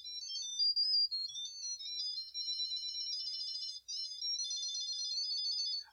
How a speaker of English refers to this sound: Oh, there are my keys because they're playing a sick ass song that I can dance to. Is that coming from your key fob or from a keychain?